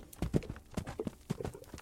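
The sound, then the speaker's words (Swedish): Hooves of horses pulling wagons loaded with young fir trees out of a forest clip-clop in a quick, steady rhythm, many sharp knocks in under two seconds, moderately loud, with no voices. “De blev lagda på vagnar och hästar drog dem bort ur skogen.”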